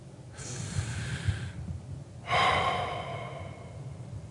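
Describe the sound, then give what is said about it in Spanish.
A slow, audible breath done as a breathing exercise for calm: a long airy inhale, a brief pause, then a louder, fuller exhale that gradually fades, with no talking. “Pero es una buena práctica y algo yo creo necesario para cada uno durante el día el uso de la respiración, si solo por una vez.”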